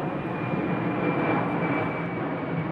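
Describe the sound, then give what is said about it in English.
A steady, loud roar of an airplane passing overhead near the airport on the outskirts of Manchester, heard from a small industrial park, with a thin high-pitched whine riding on top and no change in volume across the few seconds; no one speaks. “We're on the outskirts of Manchester, near the airport.”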